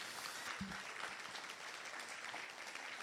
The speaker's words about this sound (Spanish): Vamos, darle un aplauso fuerte a Jesús.